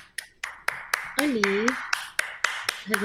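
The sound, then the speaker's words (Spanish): Steady, evenly spaced hand claps, about a dozen sharp slaps in a quick regular rhythm, with a brief voiced sound rising underneath in the middle and again at the end. “aplaude? ¿Cómo puede ser?”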